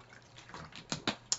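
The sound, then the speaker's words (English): Quiet sounds of someone taking a swig of water, with a few distinct wet gulps in quick succession near the end and no talking. “Let me get a swig of water.”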